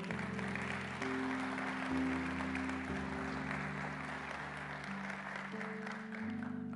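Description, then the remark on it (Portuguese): A church audience applauds to praise God, clapping steadily and continuously for several seconds, a dense wash of applause over sustained low keyboard chords that shift every second or so. “Então dá um glória a Deus e aplauda ao Senhor.”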